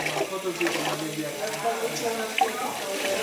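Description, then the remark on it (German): Water sloshes and splashes steadily as a bundle of fabric is dunked into a blue dye bath after a water bath, with soft gurgling throughout and faint voices in the background. “Und danach tunken wir das Stoffknäuel nach diesem Wasserbad in ein blaues Farbbad.”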